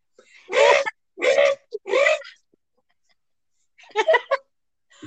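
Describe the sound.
A person imitates a crow's caw: three loud, harsh vocal squawks in quick succession, then after a short pause a softer, choppier cluster of calls.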